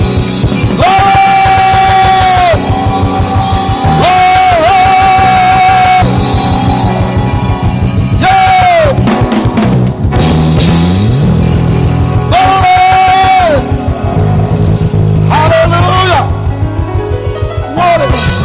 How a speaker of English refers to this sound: Come on, keep clapping, keep shouting, keep celebrating. Please, not everybody, not everybody moves. Keep celebrating, keep celebrating, keep shouting.